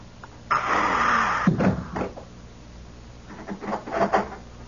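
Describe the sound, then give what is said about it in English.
A door creaks and scrapes open with a sustained rough sweep, followed by a couple of knocks as it bumps shut, then some faint shuffling and rattling. “Come in close the door.”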